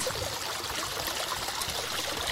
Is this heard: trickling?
yes